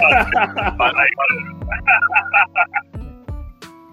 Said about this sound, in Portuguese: É o, é o meu estúdio aqui que tá, que tá dando eco, não tá muito bem projetado, tá ligado?